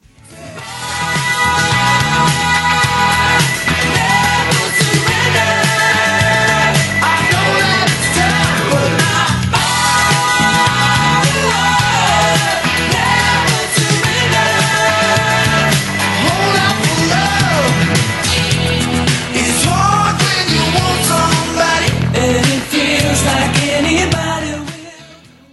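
A loud rock song plays steadily throughout, with a dense full-band sound, driving drums and a wailing sung vocal line over layered guitars and keyboards.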